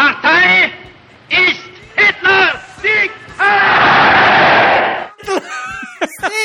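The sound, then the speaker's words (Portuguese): The Nedcast show's sound bumper ('vírgula sonora'): loud, harsh shouted exclamations in bursts, with a roaring crowd-like swell in the middle before the shouting returns, all loud. “A vírgula sonora do Nedcast, cara!”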